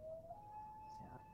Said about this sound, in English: Ooh, there's the loon there's clock. There's the loon clock.